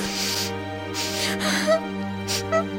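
A child cries softly, with breathy, sniffling sobs coming in a few short bursts over a low, steady tone, fairly quiet.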